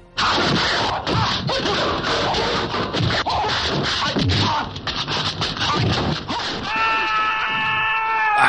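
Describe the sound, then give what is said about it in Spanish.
A man screams loudly and continuously, his raw cries rising and breaking over several seconds, ending with a sustained high-pitched tone as the yelling trails off. “otro grito.”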